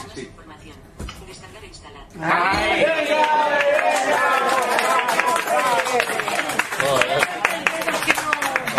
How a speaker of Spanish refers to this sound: Este aplauso tiene que quedar. No, este aplauso quedará. Está grabado, ¿eh?